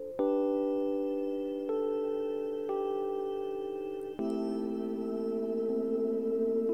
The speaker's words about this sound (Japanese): まずこのピアノだけの音。ノイズ追加しますじゃあ次シンセの音追加します